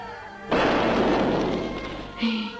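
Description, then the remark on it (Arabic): A Ramadan cannon fires with a sudden loud boom that rumbles and slowly fades over about two seconds, followed by a second sharp burst near the end. “مدفع الحلقة ضرب ولازم نمشي خلاص”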